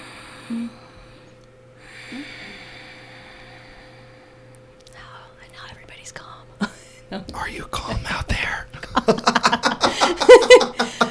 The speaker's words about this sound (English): It's called pranayama, pranayama breathing. So it's it's like the Darth Vader sound.